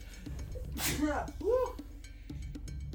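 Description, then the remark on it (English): One sharp sneeze bursts out with a noisy breathy blast followed by a short voiced tail, set against a low hum with faint background chatter. “Bless you. My goodness. But he sneezes.”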